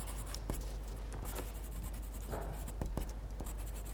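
A pencil tip scratches across paper in quick, uneven strokes, with sharp little ticks and soft rasping sweeps over a steady faint hiss, no voices present.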